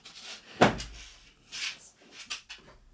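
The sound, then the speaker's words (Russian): A dog named Blanka is set down heavily on a floor with a single sharp thud, followed by softer scuffing and rustling movements; no one speaks. “громко положила бланку на пол.”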